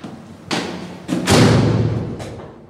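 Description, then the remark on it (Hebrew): A heavy metal prison door slams shut with a loud, booming impact, preceded by a couple of sharp metallic clanks and followed by a long, resonant reverberation that slowly fades. No talking. “בדרך כלל דלתות מתכת כבדות כאלה, שחורקות כשפותחים אותן, ונטרקות ברעש כשסוגרים.”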